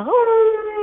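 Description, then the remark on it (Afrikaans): A voice imitates a sub-Antarctic fur seal's call: one short, loud, nasal wail that swoops upward and then holds steady for under a second. “En hierdie rob sing verskriklik.”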